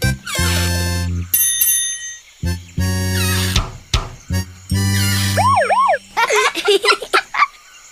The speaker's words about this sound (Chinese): Look，小兰，我们找到你的汽笛了。